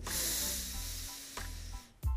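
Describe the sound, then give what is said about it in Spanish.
One long, steady inhale through the nose during a three-count breathing exercise: a soft, airy hiss that holds for about two seconds, then stops abruptly. No talking is heard. “Voy a inhalar tres segundos, inhalo.”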